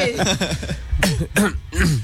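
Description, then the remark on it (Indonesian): A person coughs several times, short rough bursts coming in quick succession, mixed with voiced throaty sounds as though the coughing is being acted out. “Batuk aja,”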